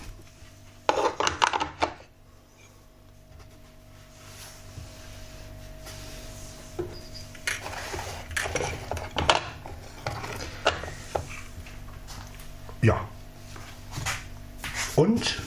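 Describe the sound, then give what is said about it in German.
Someone pulls a used coffee pad out of a machine: a run of sharp plastic clicks, clacks and rattles at irregular intervals over a steady low hum, with brief voices in between. “Den Pad raus. Den Pad raus, den Pad raus.”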